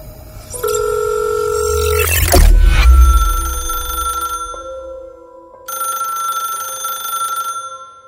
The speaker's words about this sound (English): However, on this particular morning, no one answered. Even after making three separate calls, no one picked up the phone.